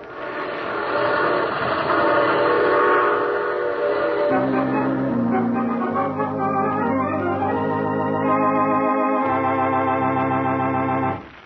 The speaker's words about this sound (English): I take this same train every week at this time.